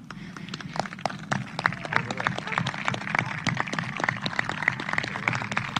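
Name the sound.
audience applause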